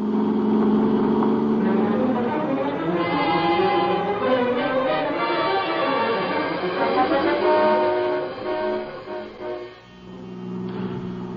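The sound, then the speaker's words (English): A car engine revs hard and accelerates as the driver keeps a heavy foot on the gas pedal, its pitch climbing and sweeping in loud, steady waves, then briefly dipping near the end before roaring back up. “I kept my foot heavy on the gas pedal.”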